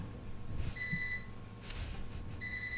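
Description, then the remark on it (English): A kitchen timer alarm goes off in two short bursts of shrill electronic beeping, clear, with a low rumble underneath and no one talking. “Sorry, that was my timer.”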